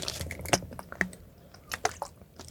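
Someone drinking nearly frozen water in a car: a few scattered wet clicks, squishy sips and swallows at an irregular pace, fairly quiet, with no talking.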